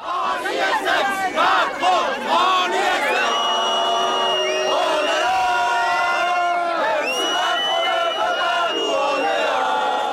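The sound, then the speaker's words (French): A large crowd of protesters in France shouting and chanting together in loud, overlapping waves of voices, sustained throughout with rising, emphatic calls, a few days before Emmanuel Macron's re-election. “et même quelques jours avant sa réélection, d'autres voix se faisaient encore entendre.”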